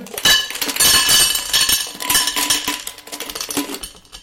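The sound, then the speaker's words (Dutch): Small hard contents pour from a little childproof jar into a small bowl, a continuous bright clinking and rattling lasting about four seconds, fairly loud, with no one talking. “Dames en heren, we gaan een keer gieten.”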